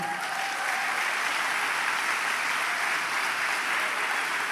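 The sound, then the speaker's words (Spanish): An audience applauding steadily, a dense wash of many hands clapping at an even, sustained loudness for the whole stretch, with no voices standing out. “Dale un fuerte aplauso.”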